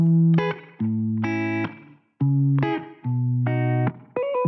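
The intro of a newly released pop song, out since the previous Friday, plays loud: thick, distorted synth chords hit in sustained blocks with brief gaps, repeating a short riff with no vocals yet.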